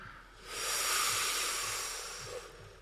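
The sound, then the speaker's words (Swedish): A long, deep belly breath drawn in steadily during a breathing exercise, letting the belly expand. A soft airy rush swells and then slowly fades over a few seconds, fairly quiet, with no talking. “Och nu när ni andas in så låter ni magen gå ut och bli jättestor.”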